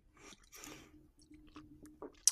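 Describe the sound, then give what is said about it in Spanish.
Someone takes a sip of water: quiet, wet slurping and swallowing noises in a few short bursts, ending with a sharp mouth click, with no talking. “Déjame beber un poco de agua.”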